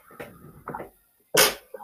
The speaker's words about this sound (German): Entschuldigung, ich muss ganz kurz niesen.